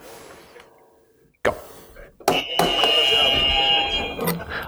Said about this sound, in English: So first to decrypt, press your buzzer and let me know what you get.